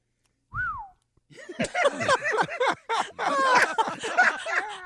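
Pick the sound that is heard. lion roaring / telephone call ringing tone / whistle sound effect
whistle sound effect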